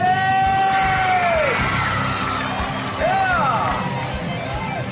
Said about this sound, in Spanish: Y que se escuche el grito para las mujeres.